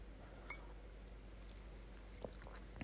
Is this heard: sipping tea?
yes